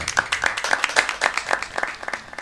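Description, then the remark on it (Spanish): Steady applause: many hands clapping in a dense, irregular patter that stays at an even, moderate level for the whole stretch, with no voices standing out. “Bueno, aplauso para.”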